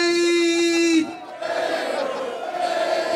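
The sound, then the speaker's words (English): A live audience at the Dan Le Batard Show at Circa in Las Vegas yells a chant together, loud, opening with a sustained unified shout that breaks into a rougher, scattered roar of many voices for the rest of the moment. “Everybody in the place, let me hear y'all scream this real loud.”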